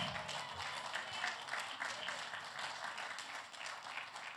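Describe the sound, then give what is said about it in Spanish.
An audience at a church service applauds steadily to the glory of God, a dense wash of many hands clapping at a fairly even loudness throughout, with faint voices mixed into the crowd noise. “¿Cuánto le un aplauso fuerte a la gloria de Dios?”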